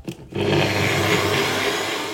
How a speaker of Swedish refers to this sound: Och så blandar jag ihop det här. Jag har lite hett vatten på en kran och blandar ihop och tar av kokosfettet och sen en tesked av smöret, lite kaffe i och så kör jag igång detta i mixen. Jag har ju min älskade Nutribullet.